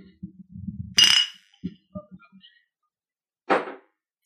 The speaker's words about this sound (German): Wir wollen mir eigentlich mal anstoßen. Komm, wir stoßen ja, mal an. Stoßen mal an.